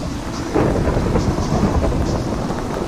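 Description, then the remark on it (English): A video game hailstorm with thunder, created with a weather command: a dense, steady roar of falling ice and rain over deep rumbling, swelling slightly after a moment and continuing loudly with no one talking. “Storm create hail. We have hail now.”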